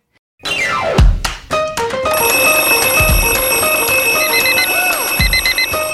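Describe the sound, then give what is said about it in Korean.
A loud alarm-bell chime, rung as a radio show's morning-call wake-up bell, opens with a quick falling cascade of bell tones, then settles into steady ringing with repeated bursts of beeping and a few deep thumps; no one speaks. “자, 저희는 날씨 알아보고 조우벨 울리러 가도록 하겠습니다.”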